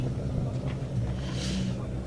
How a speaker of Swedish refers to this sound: Göran Dyngsväng Fredriksson rullar förbi med sin 242 eh, turbo.